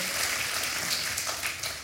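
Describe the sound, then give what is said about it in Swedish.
Steady applause from a group, a dense crackle of many hands clapping at an even loudness throughout, with no voices standing out above it. “Ja, kom, det en, en applåd.”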